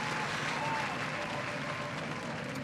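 A light golf clap: soft, dense applause with steady, even patter throughout, fairly quiet and sustained for a few seconds with no voices over it.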